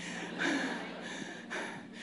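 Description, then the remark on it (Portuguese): Heavy, out-of-breath panting from a woman, with two audible breaths about a second apart and no talking. “Eu estou ofegante.”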